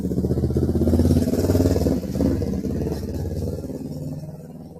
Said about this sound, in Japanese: やばいバイクが。